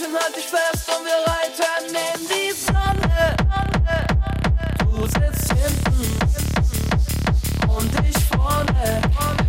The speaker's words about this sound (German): Musiker haben das Lied in einer neuen Version aufgenommen und jetzt klingt es nach Techno.